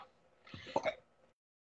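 A short cough or throat-clearing: one brief rough burst of about half a second, fairly loud against a quiet background, with no talking around it.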